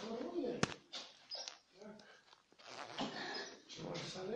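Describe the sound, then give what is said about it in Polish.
A dog whimpers in a series of thin, high-pitched whines that rise and fall in uneven bursts, with a brief sharp click early on and a steady low background. “Wiem, że, wiem, że płaczesz, że nie, nie.”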